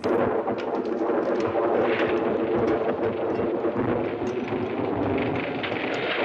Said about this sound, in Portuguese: A tempestade chegou.